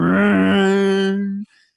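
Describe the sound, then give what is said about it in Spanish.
A single voice mimics a loud motorcycle passing by at night, a sustained buzzing, revving drone held for over a second that cuts off abruptly, followed by a faint breathy trail. “por la noche, uno está tratándose de dormir y pasa un hotel mm. en la, esa moto y eso suena pues como, como por tres barrios.”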